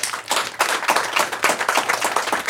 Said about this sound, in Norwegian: Og vi fortsetter applausen for vinneren fra Kvitt eller dobbelt i 1985, jernbaneeksperten